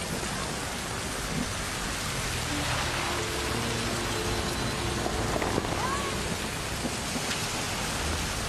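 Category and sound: nature, rain falling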